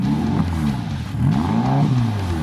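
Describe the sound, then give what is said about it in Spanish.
The engine of a completely new Harley-Davidson Sportster custom motorcycle revs loudly, its throaty pitch rising and falling in several quick surges over a steady idle rumble, with no voices. “Y ahora nos vamos en moto, en una custom completamente nueva, aunque el nombre nos suena.”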